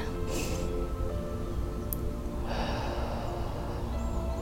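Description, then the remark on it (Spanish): A long, airy inhalation through the nose during a guided breathing exercise, starting softly and swelling into a steady rushing breath over the second half, fairly quiet with no talking. “Vas a inhalar”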